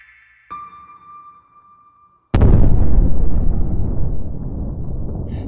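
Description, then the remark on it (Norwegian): A thin, steady electronic tone hums for about two seconds, then a huge, deep explosion erupts and rumbles on loudly with a long roaring tail, like a cinematic big-bang effect. “Til før The Big Bang”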